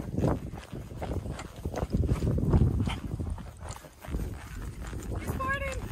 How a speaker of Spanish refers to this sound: Se está pedorreando mi caballo.